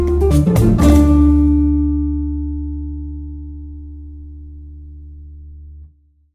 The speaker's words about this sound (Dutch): Dit is de gevreesde zoemer die na 60 seconden pitje afgaat. Lukt het startende ondernemers om binnen deze tijd hun businessidee uit te leggen aan een vakkundige jury?